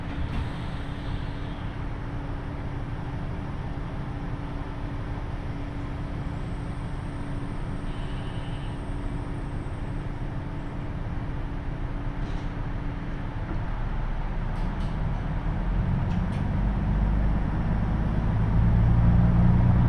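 A KiHa 75 diesel railcar runs steadily on the Taita Line from Mino-Ota to Tajimi, with a low, rumbling engine drone and a faint hum, the roar building gradually louder toward the end. No one speaks.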